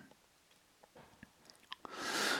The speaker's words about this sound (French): Un feu qui prend vite, un feu qui réchauffe, un feu, un feu qui crépite.